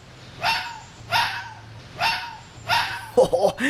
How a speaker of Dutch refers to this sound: Vossen zijn eigenlijk een soort van honden. Daarom maken ze opmerkelijke blafgeluiden. Met mijn ultramicrofoon ga ik even de geluiden van deze vos opnemen. Luister maar.